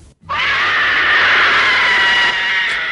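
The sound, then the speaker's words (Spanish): A single loud, high-pitched scream that bursts in after a brief pause and holds steady for over two seconds, raw and piercing, with no talking around it. “A que aún recuerdan ese grito y ese portazo.”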